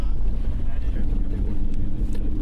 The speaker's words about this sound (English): If you're just joining us, we're on the trail less traveled in the Middle Atlas Mountains in Morocco. Slight incline with a group of 20 or so people in a bus on the way to a river expedition for the next four days.